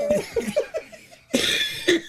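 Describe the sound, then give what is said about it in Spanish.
A fit of harsh coughing: a quick run of short hacking bursts, a brief pause, then a louder, raspier cough that trails off into another hack. “No hables tanto, hijo mío, porque te, puede dar la tos otra vez.”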